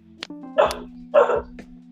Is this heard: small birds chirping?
no